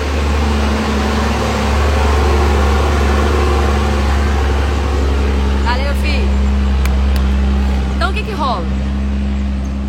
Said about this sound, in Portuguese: Bora, caminhão! Os caminhões são barulhentos demais, né?